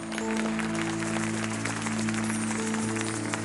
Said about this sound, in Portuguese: Amém. Glória a Deus. Aplauda ao Senhor.